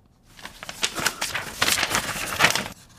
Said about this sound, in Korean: 네. 종이 구기는 소리입니다. 우리가 왜 가끔, 아유, 이런 거 있잖아요. 그죠? 아, 왜 안 돼? 뭐, 이거. 네. 아, 내 대본을 구겼네. 이 소리예요.